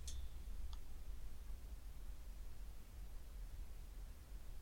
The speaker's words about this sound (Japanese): えー、プラス30。ああ。同じように、えー、乗りますね。ほぼ同じホワイトノイズ、黙ってみますよ。